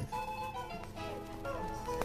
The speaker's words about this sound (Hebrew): כן, ככה קוראים לשיר הזה.